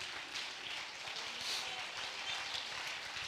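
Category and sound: crowd, audience clapping hands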